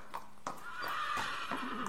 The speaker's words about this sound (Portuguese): De repente, meu cavalo para, levanta a cabeça, bate as patas no chão, como se estivesse quebrando algo, e relincha muito forte, muito alto.